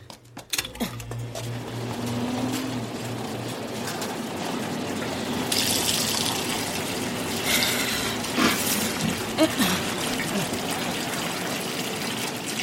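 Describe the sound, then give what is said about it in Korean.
Water runs steadily from a faucet over a knife, scattering blood off it, in a continuous hissing stream, moderately loud, growing a little stronger partway through, with a low hum at the start. “모터 소리 아래서 경자 씨는 수도꼭지를 열어 칼 위로 핏물이 흩어지는 것을 보았다.”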